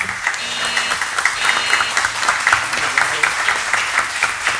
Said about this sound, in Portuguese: E agora eu gostaria de pedir uma salva de palmas para vocês.